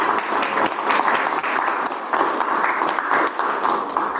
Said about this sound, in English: Massive round of applause.